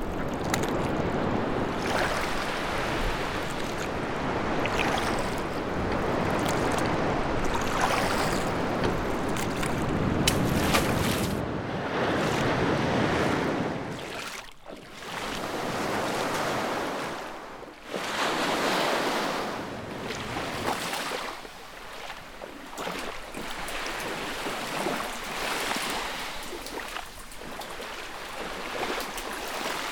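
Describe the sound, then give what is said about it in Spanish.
A small boat pushes through choppy water, waves sloshing and surging steadily around the hull with gusty wind rushing past; the sound is loud and continuous, with brief dips as swells pass. “Estas aguas son su obra. Ayúdame, vamos a acercarnos a la boca de la gruta.”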